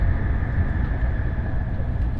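Steady low rumble inside the cabin of a Nishi-Kyushu Shinkansen train running from Nagasaki to Saga, a continuous dense roar with a faint constant hum above it, no voices, even and unbroken throughout.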